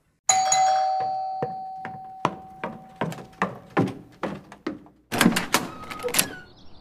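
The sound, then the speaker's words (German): A doorbell at a large estate chimes with a clear, lingering tone, followed by a steady run of sharp knocking thuds and then a brief burst of rattling, clattering noise near the end. “Ja, okay, du klingelst klingel bei mir in mal. meinem großzügigen Anwesen.”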